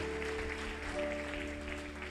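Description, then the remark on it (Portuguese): A crowd claps steadily in a dense, continuous wash of applause, applauding God, with a sustained musical tone humming underneath throughout. “Vai aplaudindo a Deus.”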